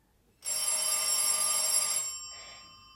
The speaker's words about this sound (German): da läutet auch noch das Telefon.